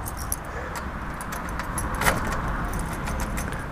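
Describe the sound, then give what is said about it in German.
Keys jingle and scrape as someone tries several keys in a door lock on the third floor of a four-storey building; one key goes in but will not lock. Small metallic clicks and one sharper clink, over a steady low hum of background noise. “Schlüssel 2 passt zwar rein, kann man aber nicht mit schließen.”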